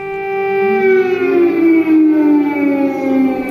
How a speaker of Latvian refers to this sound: Sestdienas laikā visā Ukrainas teritorijā vairāk kārt bija izsludināta gaisa trauksme.